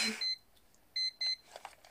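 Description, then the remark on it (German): An alarm clock emits short, high electronic beeps in quick bursts, a pair sounding after a brief pause, fairly soft, followed by faint rustling. “So hört sich mein Wecker an.”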